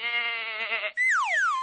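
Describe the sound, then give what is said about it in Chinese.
A goat bleats twice: first a steady, quavering cry lasting about a second, then a louder, higher call that slides down in pitch. No one speaks. “原来啊，他自己幼年时在波兰的奶妈，就是一头山羊。”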